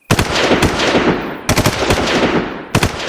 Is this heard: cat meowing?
no